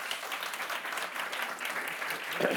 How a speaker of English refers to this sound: Let us welcome them with an applause.